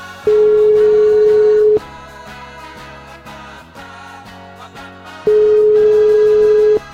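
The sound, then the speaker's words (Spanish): A steady telephone ringing tone sounds twice, each long beep lasting about a second and a half with a few seconds' gap, the call going unanswered while upbeat music plays underneath. “Volvemos a llamar, no nos rendimos.”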